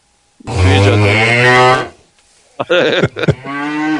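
A cow moos loudly, one long drawn-out low bellow followed by a short pause and a few shorter, broken moos.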